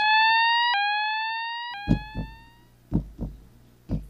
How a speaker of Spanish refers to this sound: Llaman los bomberos en caso de sonar la alarma de incendios.